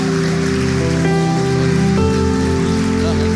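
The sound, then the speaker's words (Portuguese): A church audience claps steadily in a dense, continuous wash of applause, with sustained keyboard chords droning underneath throughout. No one speaks. “Aplaude aí, gente, pelo amor de Deus.”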